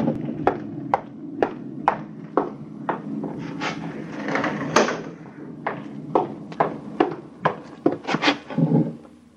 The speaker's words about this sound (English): There's a storm coming up, and I can hardly hear you. Excuse me while I close the window.